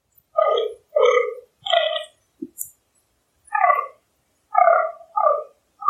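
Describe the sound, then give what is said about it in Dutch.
A fallow deer buck grunts repeatedly during the autumn rut: about seven deep, belching groans in an uneven rhythm, loud, with short pauses between them and no voices. “is een knorrend damhert.”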